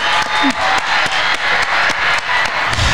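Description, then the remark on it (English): An audience breaks into steady applause, a dense wash of many hands clapping at once with occasional sharper claps, loud and continuous throughout, with a few voices mixed in. “So shout out, give her a round of applause for allowing us to do that.”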